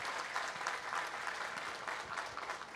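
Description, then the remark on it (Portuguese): An audience applauds the men and women of the security forces, a dense, sustained clatter of many hands clapping at an even loudness throughout, with no voices standing out above it. “Quero pedir aqui uma salva de palmas aos homens e mulheres das nossas forças de segurança.”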